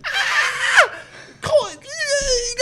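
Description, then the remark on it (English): A person imitates a shrill, high-pitched scream: two loud falling shrieks, then a longer wavering wail, with no other talk. “I screamed like a woman and ran away.”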